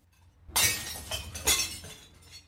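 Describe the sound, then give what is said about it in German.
Glass preserve jars of home-preserved food from the 1970s (cherries, strawberries, red cabbage), cleared from a cellar cupboard, smash into a container in front of the door with a loud crash, followed by a second burst of shattering and a scatter of tinkling shards that fades out. No one speaks. “Jetzt landet alles auf dem Container vor der Tür.”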